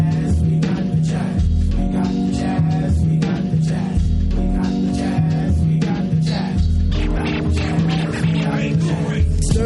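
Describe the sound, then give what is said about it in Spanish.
A 1990s jazz rap track blending jazz and hip hop plays loudly and continuously, a steady, evenly spaced drum beat cracking over a deep, throbbing bassline and warm, sustained harmonic chords. “Jazz y hip hop son uno en este temazo.”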